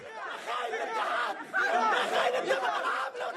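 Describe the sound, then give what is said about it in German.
A dense crowd at a public meeting in Tunisia, many voices talking and shouting over one another, people shouting that they lost their hotel jobs; a steady loud hubbub that swells midway with sharper raised voices standing out. “Bei der Versammlung kippt nach dem ersten Applaus schon schnell die Stimmung.”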